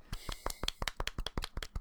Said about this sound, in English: can we give him a golf clap? We're going to give him a golf clap on this one, right?